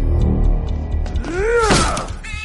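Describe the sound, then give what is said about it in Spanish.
A hand transformed into an axe strikes a door in one heavy blow, landing with a sharp splintering crash. Before it come a low rumble and a rising, falling groan, and a faint rattle trails after. “Transforma su mano en un hacha y golpea la puerta.”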